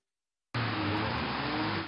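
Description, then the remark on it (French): A loud car roar bursts in after a brief silence and holds steady for about a second and a half, a harsh rush of engine and road noise with a low droning hum underneath, from an urban rodeo of dozens of cars driven at full speed and skidding in a small commune in Île-de-France. “Sur ces images amateurs, des rodéos incessants des dizaines de voitures lancées à pleine vitesse enchaînent les dérapages.”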